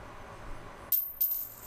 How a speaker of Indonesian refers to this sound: tiba-tiba ada suara koin jatuh tiba-tiba aja tiba-tiba lagi pada diem banget bener-bener jelas banget seriusan